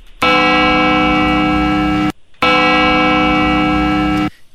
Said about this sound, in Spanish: pero era muy simple el sonido. Muy simple, yo creo que hemos puesto sonidos, pero la gente en el afán de decir, no, no creo que sea eso, va a ser esto, pero escuchen, es una campana.